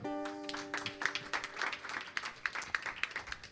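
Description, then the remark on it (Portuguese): A church audience applauds the Lord during a Sunday worship service, a dense crackle of many hands clapping steadily at moderate loudness, with a sustained musical tone ringing underneath at the start before fading. “Aplauda ao Senhor.”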